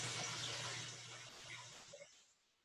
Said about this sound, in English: Sorry about the background noise, by the way. That is the uh, dishwasher. It's uh, a little bit, uh, you know, loud, but it uh, saves me time, so I can't really do anything about it.